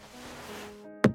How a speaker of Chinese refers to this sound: 一声闷响，有个黑色长方形硬物掉在了地毯上，是他的手机。